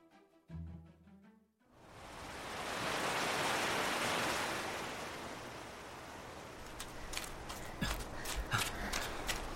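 A few musical notes fade out, then ocean waves wash ashore on a beach in the morning in a broad, steady roar that swells and lingers, with a series of soft rhythmic thuds of someone jogging along the beach joining near the end.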